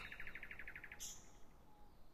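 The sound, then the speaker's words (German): Nightingales sing at a police station at night: a quick trill of about ten repeated notes, then a sharp high whistle, fairly soft over a low background rumble. “Wieder in der Polizeiinspektion angekommen, singen die Nachtigallen noch immer.”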